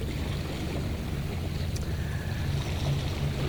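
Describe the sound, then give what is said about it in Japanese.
Steady seaside wind buffets the microphone with a constant low rumble and broad rushing hiss, an unbroken outdoor shoreline ambience with some 30 to 40 sailing yachts moving back and forth offshore and a Ferris wheel nearby, no voices and no distinct individual sounds standing out. “右側には観覧車目の前にはヨットがですね今日はものすごく30層か40層ぐらいのヨットが、えー、目の前ずらーっとこう横に広がって行ったり来たり行ったり来たりしてますねなんか練習してるんでしょうね”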